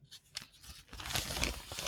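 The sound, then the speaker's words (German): Newspaper pages rustle and tear, a few soft crinkles at first, then a louder, continuous papery ripping and crackling that fills the rest of the moment, with no voices. “So, jetzt, jetzt, jetzt wird's rascheln. Raschelig.”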